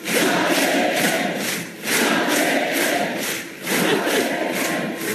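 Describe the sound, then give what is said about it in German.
A large crowd of FPÖ party convention delegates chants a short name in unison, loud and rhythmic, with swells roughly every two seconds, voices blending into a roaring, cheering mass. “Und falls Sie nicht genau verstehen, was die Delegierten da rufen, dann hören Sie mal genau hin.”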